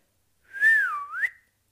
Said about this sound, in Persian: پولت مثل بچه های کوچه گرد سوتی کشید و گفت